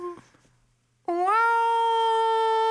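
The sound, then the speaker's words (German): After a brief quiet moment, a voice breaks into a loud, sustained rising wail imitating the mechanical siren of a New York fire engine, climbing in pitch and then holding steady until the end. “Diese, diese Ledders oder Engines in New York, die ja einfach nur mit, ich weiß nicht, ob das so ein Rad ist, das sich dreht, ja.”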